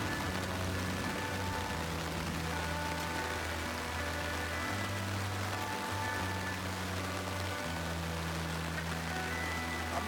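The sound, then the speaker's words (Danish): Steady rain that has only just begun hisses outside during a thunderstorm, a dense, even wash of sound holding constant throughout, with a low droning hum running underneath. No one speaks. “Det er først lige nu begyndt at regne.”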